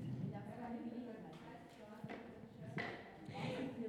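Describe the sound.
Musicians' footsteps clack in a steady marching rhythm through a town, about four sharp hard-soled steps spaced evenly, heard over a continuous murmur of voices or tonal background sound.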